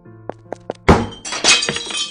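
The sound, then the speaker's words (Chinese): Dishes of food are knocked off a table corner and crash to the floor as someone collapses: three quick soft knocks, then a loud burst of breaking crockery followed by a second scattering clatter of shards and clinks as pieces settle. “由于失血过多而倒在地上，连带着撞到桌角那些饭菜的地上。”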